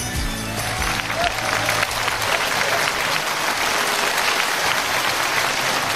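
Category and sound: crowd, audience applause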